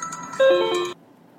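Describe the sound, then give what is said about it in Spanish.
A phone ringtone for an incoming work call, heard in a car on the way to work, sounds in one loud, bright burst of layered electronic chime tones lasting about half a second, preceded by fainter tones and then cutting off to a low background hum. “A ver, me vais a perdonar, que me llaman del trabajo.”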